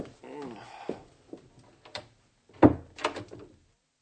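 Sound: door opening or closing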